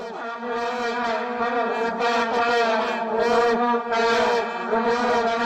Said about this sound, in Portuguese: Quero que suba o som da vuvuzela.